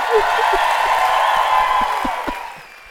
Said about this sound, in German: Ich lass mal alle für dich klatschen, das war mein Papa.